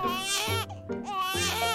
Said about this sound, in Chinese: 过没多久，… 又开始大哭起来了。